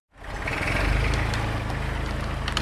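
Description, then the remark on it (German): A heavy diesel excavator engine rumbles steadily, with scattered sharp clinks and rattles on top, as it scoops mineral concrete from a large pile, shovel by shovel, into a trailer in front of a new building at a construction site in Lower Franconia near Würzburg, Germany. “Von dem baggert Jonathan aus, Schaufel für Schaufel in einen Anhänger.”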